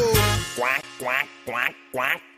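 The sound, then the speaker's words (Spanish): A duck in the water on a farm quacks four times in a steady, evenly spaced rhythm, each call loud and nasal, after a brief burst of noise at the start. “Mientras el pato en el agua está.”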